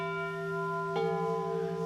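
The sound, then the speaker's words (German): Altar bells ring with a bright, sustained metallic tone. A fresh strike partway through renews the shimmer, and the ringing hangs steadily at moderate loudness with no voices. “Und es waren Altarglocken.”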